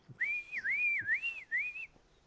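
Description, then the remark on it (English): A loud, sustained human whistle warbles up and down in pitch for nearly two seconds, with a few soft low thumps underneath and no talking. “He gives like a real big loud whistle.”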